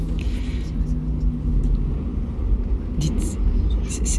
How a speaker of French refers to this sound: C'est moi ou le bus euh, ralentit là Ah oui, c'est vrai.